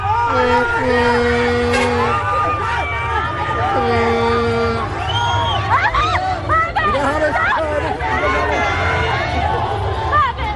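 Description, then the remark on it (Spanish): A crowd of Colombia fans cheers and shouts around the Colombia team bus in a heavy downpour, running after the bus and blocking Carrera Séptima, in a constant excited hubbub, with sustained chanting voices, whoops and overlapping yells rising and falling throughout. “Bueno, la gente enloquecida pese a la lluvia, sí, tremendo chaparrón. La gente corre detrás del bus.”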